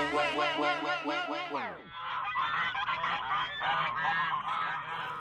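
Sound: geese honking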